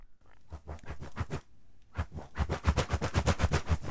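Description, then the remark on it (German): Quick, airy whooshes of violin bows swished hard through the air by string musicians, first a scattered handful, then a fast, steady run of rhythmic swipes, all fairly soft with no voices. “Und da haben die Musiker den Bogen in die Hand genommen, also die Streicher, und haben dann angefangen, einmal ganz fest durch die Luft zu wedeln.”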